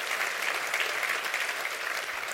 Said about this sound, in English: Can you clap and say, That's my portion.